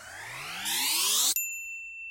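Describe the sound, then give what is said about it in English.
A rising whooshing sweep builds for a second, then cuts off as a single bright starting bell ding rings out clearly and sustains, fading slowly on its own; an old cowboy with a white beard stands next to the bell. “And then we cut to an old cowboy guy with a white beard standing next to a starting bell.”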